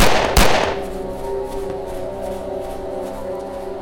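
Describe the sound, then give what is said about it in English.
A single sharp, loud gunshot cracks out near the start, followed by a long ringing, echoing tail that slowly fades. No one speaks. “It was at this moment, running away from gunfire and losing one of my two boom operators, that the pieces started to come together.”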